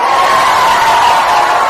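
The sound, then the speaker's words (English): A group of children cheering loudly together when asked to give a cheer during a quiz, a dense, sustained wash of high-pitched voices and shouts that stays at an even level for the whole couple of seconds. “Boys zero. Give me a cheer.”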